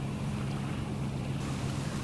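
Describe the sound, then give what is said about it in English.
A small blue boat's engine hums steadily as it leaves the marina while splashing wavelets lap in its wake, with faint wind over the scene and no one speaking. “A small blue boat leaving the marina has spoiled the tranquil morning and left splashing wavelets in its wake.”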